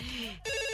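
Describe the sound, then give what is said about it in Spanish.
A call-in show's telephone lines ring loudly for callers, the tone shifting partway through into a steady, bright electronic ring rich in high overtones, with no voices over it. “pero sí pueden llamar a nuestras líneas telefónicas. En este momento ya están ahí sonando para ustedes.”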